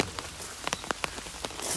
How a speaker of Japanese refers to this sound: なんかいっぱい降ってきちゃった。はい、雨量が増えてきたな。